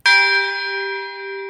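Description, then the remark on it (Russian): A single deep strike of a huge modern 35-ton church bell hung on the first tier of a bell tower, its rich layered overtones ringing out loud and sustained, with no voices over the long resonant hum. “На первом ярусе звонится громадный колокол. Весит 35 тонн.”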